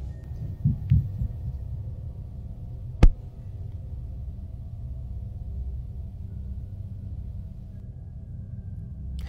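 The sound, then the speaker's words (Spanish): Recorded on a mobile phone at night in a home, a few dull, heavy thuds like footsteps sound early on, then one sharp bang like a door shutting, all over a steady low rumble with no talking. “Se está cerrando la puerta. ¿Y escuchaste los pasos del inicio? Sí. Aparte no son pasos delicados, ¿eh? suenan bastante fuertes.”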